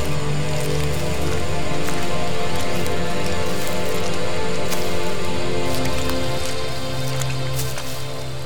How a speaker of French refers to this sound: La pluie s'éloigne, le tonnerre aussi. Bientôt, les seules gouttes qui tombent viennent des feuilles des arbres.